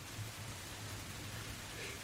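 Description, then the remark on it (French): Steady, dense hiss of heavy rain pouring down at night onto the roof of a large house, a continuous wash of noise with no gaps and no voices. “Une nuit obscure où la pluie tombe à grandes cordes sur euh, le toit de la grande maison”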